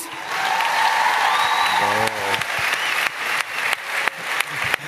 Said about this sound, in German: Das war jetzt aber relativ verhalten, gewesen, der also Applaus.